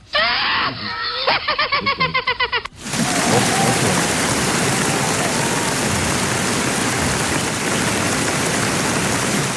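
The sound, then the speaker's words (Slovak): A few seconds of rhythmic, high-pitched vocal cries give way to a loud, dense wash of applause that continues steadily to the end, its crackle sounding almost like heavy rain. “Zaznel obrovský potlesk.”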